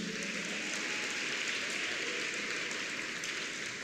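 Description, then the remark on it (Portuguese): A church audience applauds the Lord during a sermon, a dense, continuous patter of many hands clapping at an even level with no voices standing out. “Você pode aplaudir aí o Senhor.”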